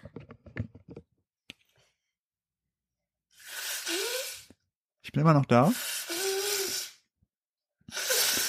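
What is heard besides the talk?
nose blowing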